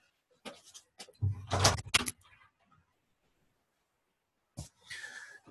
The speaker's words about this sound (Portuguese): ah, licença, só vou abrir a porta aqui.